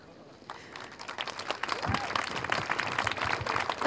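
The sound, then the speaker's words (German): Audience applause during a speech builds from scattered claps into steady, dense clapping from a crowd, growing louder over a few seconds with a faint murmur underneath. “kommen noch ein paar, ihr müsst nicht immer klatschen.”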